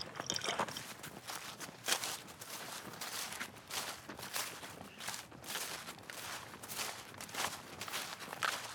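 Squelching footsteps trudge through wet mud at a steady walking pace, each step a sloppy, sucking impact repeating about once a second with no talking.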